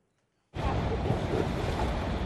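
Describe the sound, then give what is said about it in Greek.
After a brief silence, loud churning floodwater and waves surge in abruptly and roar steadily. The river Elbe has burst its banks during storm Zoltan, flooding the streets and famous fish market of Hamburg in northern Germany. A dense rush of water is heard, with gusty wind buffeting the microphone. “Ο ποταμό Έλβα έχει χάσει τι όχθε του και έχει πλημμυρίσει του δρόμου τη πόλη.”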